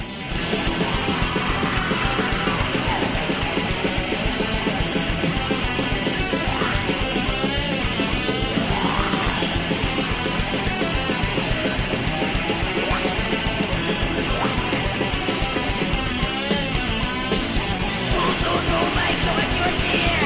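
A heavy thrash metal song blasts continuously at high volume, with dense distorted guitars, pounding drums and shouted vocals filling the whole stretch without a break.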